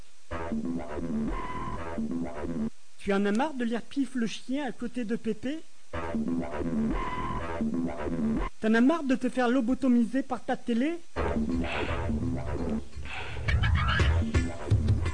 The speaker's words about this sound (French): Ah, j'ai passé un jingle je croyais qu'il déconnait mon ordinateur. Ah, j'ai eu peur.